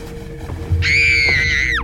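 A small child's piercing, high-pitched scream bursts in and holds steady for about a second, loud, before dropping off sharply at the end over a low background hum.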